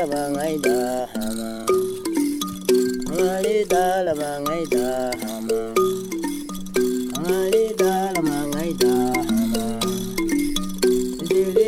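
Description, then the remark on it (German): A thumb piano's thin, tongue-like metal rods are plucked with the fingertips in a steady, repeating rhythm, bright, while a Hadza man sings a wavering melody over the twangy accompaniment throughout. “auf der dünne, zungenartige Metallstäbe angebracht sind, die mit den Fingerkuppen zum Schwingen gebracht werden”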